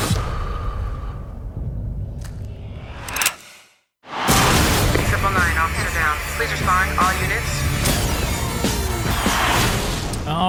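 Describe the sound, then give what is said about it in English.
Loud, dense action movie trailer audio with booming impacts and gunfire-like bursts, cutting to a sharp moment of silence before slamming back into a thick wall of music, effects and voices. “that was the trailer for Triple Nine, our first new release review of this week”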